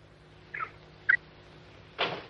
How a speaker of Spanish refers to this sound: Ese pío pío me molesta.